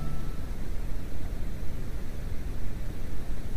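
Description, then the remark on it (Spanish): Steady static hiss opening a psychophony recording fills the whole stretch, a dense, unbroken wash of noise with a slightly rumbling low end and no voices or distinct events. “unas psicofonías muy espeluznantes, psicofonías de mucho miedo que por lo tanto, aviso a enfermos cardíacos, a ciegos, a lactantes y vagabundos que se abstengan absolutamente de oír estas psicofonías espectrales.”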